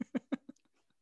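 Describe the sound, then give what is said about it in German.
Quiet drinking: four soft gulping swallows in a quick, even rhythm, followed by a few faint wet mouth clicks as it tapers off. No talking. “Ich kann auch leise trinken.”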